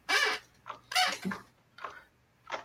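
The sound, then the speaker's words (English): A chair that needs oiling creaks and squeaks in five short, uneven bursts, with high, scratchy, wavering tones and a longer squeal near the start. No one speaks. “It just I have to oil my chair.”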